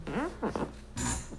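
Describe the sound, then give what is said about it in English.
A chair creaks in a few short, squeaky groans with a low, raspy, almost fart-like tone, the last one longer and louder. “That was in a fart, that was a chair.”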